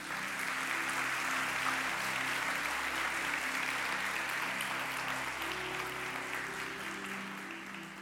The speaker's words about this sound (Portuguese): Você pode aplaudir a Jesus bem forte?